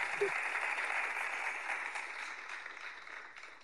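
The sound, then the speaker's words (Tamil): An audience applauds on request, a dense wash of many hands clapping at once, sustained and fairly loud throughout before easing off slightly toward the end; no one speaks over it. “இந்த வாட்டி எல்லாம் கிளாப் போடுங்க கிளாப் போடுங்க”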